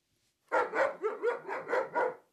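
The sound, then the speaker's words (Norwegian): A dog barks in a quick, steady run of about six or seven loud barks, evenly spaced with no pauses, then stops. “Ja, jeg tenkte først at jeg skulle oversette noe fra hund. Hør på dette.”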